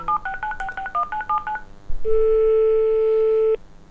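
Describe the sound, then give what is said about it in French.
A quick run of about ten touch-tone dialing beeps as a phone call is placed to a hospital infectious-disease doctor, then a short pause and one long, steady ringing tone on the line, clear with no voices. “Et là, je suis en train de l'appeler.”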